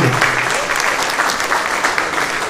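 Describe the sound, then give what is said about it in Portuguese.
An audience in a church applauds steadily, a dense wash of many hands clapping at an even, loud level throughout, with no voices rising above it. “Uma salva de palmas.”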